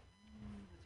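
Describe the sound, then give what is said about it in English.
A voice imitates the soft crying of weak, hungry children crying themselves to sleep: one quiet, drawn-out whimpering moan under a second long, low-pitched and fairly steady, with no words spoken. “So they're weak and they're softly, softly crying themselves to sleep.”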